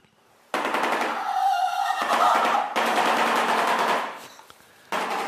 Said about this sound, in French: c'est le, claquement de, bec d'un bec en sabot, un bec en, bec en sabot du Nil